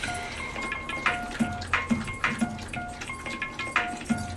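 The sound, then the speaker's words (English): A dog laps water from a bowl in quick, steady wet splashes, repeating every half second or so, with a faint tonal hum in the background. “Y'all hear that drinking water? That's my dog in the back drinking it.”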